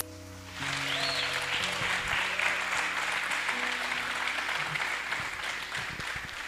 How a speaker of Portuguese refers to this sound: Em nome de Jesus, abençoe desde já cada mãe aqui presente que está nos assistindo e uma salva de palmas para vocês, mamães. Feliz Dia das Mães!